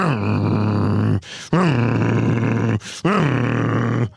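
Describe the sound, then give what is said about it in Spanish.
A voice imitates a dog's growling bark at another dog passing in front, three drawn-out, rough, low calls of roughly a second each, separated by short pauses, loud. “Y cuando hay otro perro que pasa por enfrente, entonces tienen el segundo que es...”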